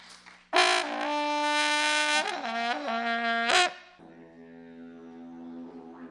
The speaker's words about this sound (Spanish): De Chile, una trutruca. Un aplauso para la trutruca. Y los pueblos, originarios. ¿Pueden tocarla?